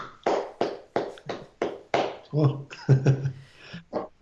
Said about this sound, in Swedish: du, det där lät lite som något annat som inte hör, inte hör hemma i en sån här podd tror jag faktiskt. Ja, nej, det var en handklappning